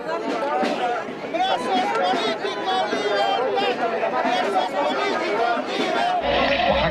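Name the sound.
crowd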